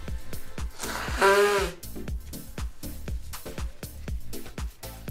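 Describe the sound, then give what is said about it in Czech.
A single loud, honking nose blow lasting about half a second, with a wavering nasal tone, set over a steady rhythmic beat that keeps going throughout. “a druhá věc, zase musím vysmrkat, co omlouvám.”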